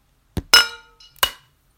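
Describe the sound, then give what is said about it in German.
Glasses clink together in a toast, a quick tap followed by a bright ringing clink and then a second ringing clink about half a second later, fairly loud with no talking. “Deins hat einfach geklungen wie Plastik. Es ist Glas.”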